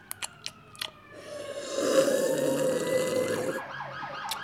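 ambulance siren passing outside

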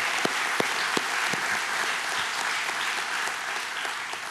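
audience applauding

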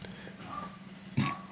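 burp

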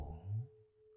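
meditation bell ringing

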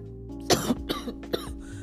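cough

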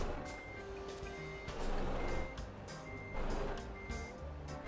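truck reversing beeps

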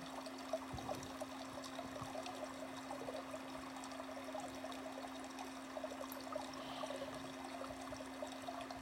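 trickling flowing water

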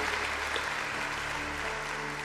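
audience applauding

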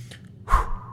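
deep nasal inhale

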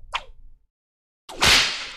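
whip crack sound effect

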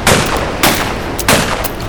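gunshot

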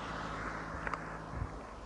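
strong wind blowing

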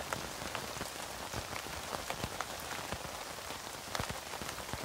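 rain falling

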